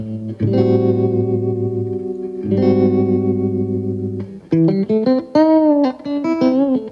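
An electric instrument played through a warm echo effect: two long sustained chords ring out, then a quick run of single notes follows, each trailing softly. Loud, no talking.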